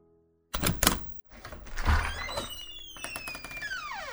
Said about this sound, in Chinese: 男人刚离开不久，外边就传来了钥匙开门的动静。 很快，我的房门就被推开了。